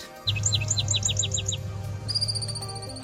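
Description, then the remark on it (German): A chipmunk chirps in a quick run of about eight sharp, high calls, then breaks into a rapid, thin trill, all over a steady low background rumble with no talking. “Kein Vogel, sondern es ist ein Streifenhörnchen. Die zwitschern nicht nur, sie haben auch interessante Tricks, um gut durch den Winterschlaf zu kommen.”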